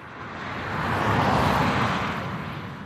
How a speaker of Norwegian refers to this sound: På E6 i Østfold suser bilene forbi på et stykke av motorveien som fikk vaierrekkverk i midten, før rekkverkstypen ble forbudt av samferdselsminister Navarsete i 2006.